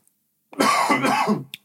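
A single raspy cough with a throaty rumble, lasting about a second, followed by a brief breathy tail; no talking.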